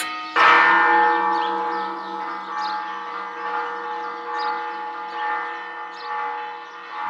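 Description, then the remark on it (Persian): A large bell is struck once, loud, then its deep, resonant tone rings on for several seconds with a gently wavering shimmer, slowly fading. No one speaks. “و توی سرم پر از صدای زنگ بود”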